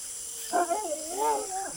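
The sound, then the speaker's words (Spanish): A dog named Ringo whimpers, one drawn-out whine that wavers up and down in pitch for about a second, fairly soft and with no one talking. “Después pudo escuchar el llanto de Ringo de nuevo.”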